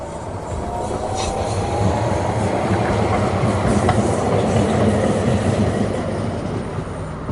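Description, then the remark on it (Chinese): A subway train roars by in a tunnel, a loud, steady rumble of wheels and rattling carriages sustained throughout, with faint high squeals over the heavy low roar and no voices. “火车轰的一下冲过去，我突然发现，我站在地下铁路的隧道里，”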